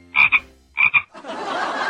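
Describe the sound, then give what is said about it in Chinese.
A toad croaks twice, each call a quick pair of raspy, fairly high-pitched pulses, followed by a steady hissing rush that continues to the end. “大明湖，明湖大，大明湖里有荷花，荷花上面有蛤蟆，一戳一蹦哒。”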